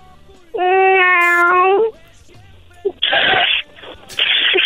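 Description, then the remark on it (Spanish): A person, asked to make the sound of a cat, imitates one with a long, steady, drawn-out meow, loud, followed by two short breathy, hissing bursts. “Haz, haz el ruido de un gato.”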